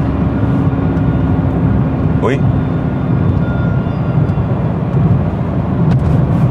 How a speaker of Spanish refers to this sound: Perdonad, pero es que acabo de oír como una sirena y no sabía si era del coche o se oye de por ahí. Una cosa rarísima.